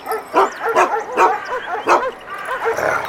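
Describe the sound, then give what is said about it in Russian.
A large chained guard dog by its doghouse barks loudly and repeatedly, a rapid string of deep, harsh barks with short gaps, some trailing into whiny yelps. No one speaks. “Знакомиться с хозяйской собакой Так, вы близко не подходите О, такая немаленькая собачка И цепь у нее серьезная”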